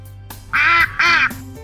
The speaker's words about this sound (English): They see a duck in the river. Little duck! Will you take us across the river? They ask.